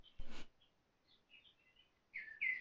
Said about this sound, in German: die Vögel haben mir gerade gezwitschert